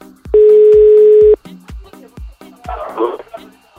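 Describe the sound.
A loud, steady telephone dial tone hums for about a second while a call is being placed, then cuts off; rhythmic low thumps and brief muffled voice-like noise follow.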